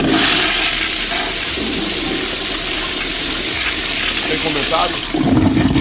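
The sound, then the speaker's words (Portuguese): A toilet flushes loudly, a steady roar of rushing water that fills the whole stretch, with a brief spoken question near the end. “descargazinho, descarga, descargazinho.”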